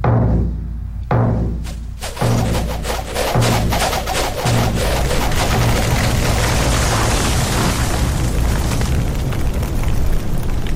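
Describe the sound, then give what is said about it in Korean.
Deep, booming war drums beaten by attacking soldiers pound at a steady pace of about one beat per second, loud, over a dense roar of battle noise and shouting that swells and stays heavy throughout. “북소리를 더욱 크게 울려라!”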